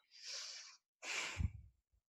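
A deep, conscious breath drawn in slowly, then a pause and a fuller, rushing exhale, with no one talking.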